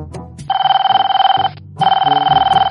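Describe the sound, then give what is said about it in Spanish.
A telephone rings loudly in two long bursts with a short gap between them, each burst a rapid metallic trill. Faint low murmuring sits underneath. “¿Y ahora quién llama a esta hora?”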